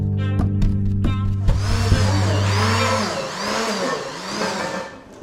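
A blender whirs into action after a few clicks and knocks. Its motor drones steadily and rises and falls in pitch in rhythmic swells as it purees grasshoppers, mealworms and crickets, with no talking.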